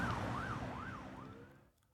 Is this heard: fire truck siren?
yes